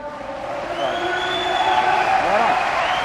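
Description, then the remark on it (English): An audience applauds in a steady, dense wash of clapping, with scattered cheers and voices rising over it and holding loud throughout. “Well, we just got a round of applause.”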